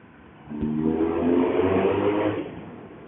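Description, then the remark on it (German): A BMW motorcycle with an aftermarket Remus exhaust revs up loudly in a tunnel, holding a deep, throaty roar for about two seconds before easing back down to a lower rumble. “Ja, da ist natürlich jetzt alle Motorradfreunde und ich weiß, im Moment ist ja in Deutschland Motorradlärm ein Thema, aber”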